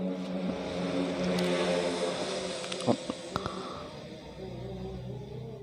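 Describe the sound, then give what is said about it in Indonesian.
An Islamic call to prayer, a single sustained chanting voice holding long, wavering melodic notes with a steady humming tone. Nobody talks, and a few brief clicks cut in partway through. “ah kayaknya berhenti dulu ya dengar kita dengar adan dulu baru lanjut lagi”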